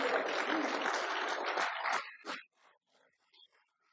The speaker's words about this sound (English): Let's give him a, another hand clap of praise. Hallelujah.